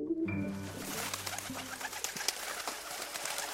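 A pigeon gives a low, throaty coo, a soft rolling call in the first second or so, followed by steady rustling and scattered clicks from the surroundings.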